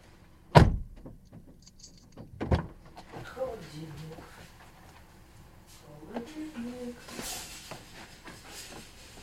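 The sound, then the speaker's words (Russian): A car engine is switched off: a loud sharp click and thump, then a second softer knock about two seconds later, followed by quiet murmuring voices and faint rustling. “Так, а еще мне, наверное, нужно заглушить двигатель.”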